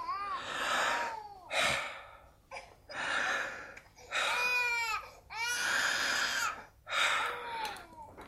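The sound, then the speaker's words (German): Deep, heavy breaths in and out through the open mouth, repeated about six times in a steady rhythm, fairly loud, each breath voiced into a sighing, almost whimpering tone, during a lung examination. “Schnaufen Sie durchs offene Maul tief ein und aus.”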